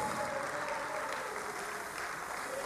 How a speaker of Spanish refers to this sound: Ese aplauso es para vos, Diego, donde quiera que estés.